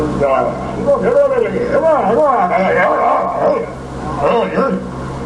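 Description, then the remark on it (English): A husky, guttural animal voice mimics human speech, gliding up and down in word-like phrases. It is fairly loud, over a steady low hum, with no one else talking. “it's a wonderful example of animal imitation and a very clever animal.”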